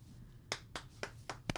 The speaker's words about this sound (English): Slow clap. Congrats.